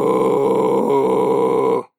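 A loud, steady Tuvan throat-singing drone in a deep, moo-like tone, rich with buzzing overtones, held unbroken for nearly two seconds before cutting off abruptly.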